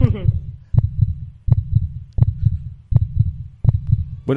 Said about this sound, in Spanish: culminó con la fabricación del primer metrónomo arrítmico de la historia